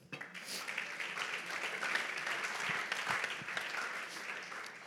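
A crowd breaks into sustained, dense applause for the Lord, a steady wash of many hands clapping at once, even in loudness throughout, with no talking over it.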